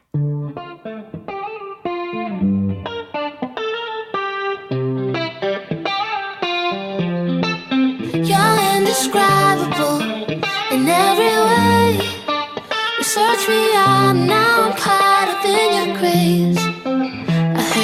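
A worship song plays loudly and steadily, opening with layered melodic lines before a fuller band with driving, distorted guitar swells in about halfway through.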